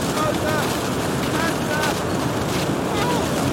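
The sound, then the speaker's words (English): A loud, steady roar of storm wind rushes without pause, a dense, unbroken howl filling the whole stretch, with faint muffled voices barely rising beneath it. “This storm will wipe it away in minutes.”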